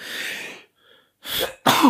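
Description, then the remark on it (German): A loud sneeze bursts out as a breathy rush of air, followed after a brief pause by two shorter, sharp breathy bursts. No one speaks. “Und ich muss niesen.”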